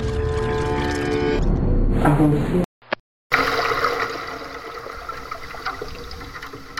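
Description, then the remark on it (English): Incoming Pacific Ocean waves strike the metal pylons of the USA's border fence on Tijuana Beach, a fence made of chopped-up railway lines, drawing out a low, resonant metallic drone. A brief silent break follows, then a steady rush of surf washes on for several seconds. “On Tijuana Beach, the metal pylons of the USA's border fence vibrate as they are hit by incoming waves from the Pacific Ocean.”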